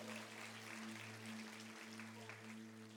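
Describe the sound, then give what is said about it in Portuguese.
An audience applauds Jesus, a soft, steady wash of many hands clapping at once, heard faintly over a constant low electrical hum. “Você pode aplaudir a Jesus, porque Ele é digno do nosso louvor.”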